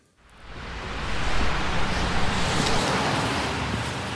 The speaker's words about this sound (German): Ruhig fließt in Narva der Morgenverkehr vor sich hin. Auf dem Parkplatz eines Supermarktes stehen nur wenige Autos. Die meisten Menschen gehen bei sonnigem Wetter zu Fuß einkaufen.